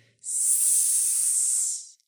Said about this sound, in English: The children had a nanny who had been sleeping while they played, but she heard the snake charmer's snake hissing